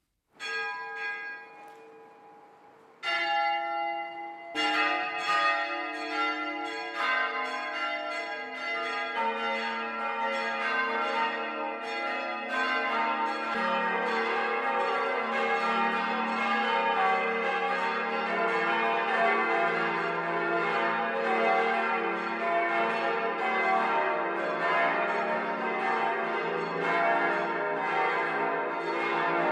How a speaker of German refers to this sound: Das Mittagsläuten kommt heute von der katholischen Pfarrkirche St. Andreas im unterfränkischen Karlstadt am Main.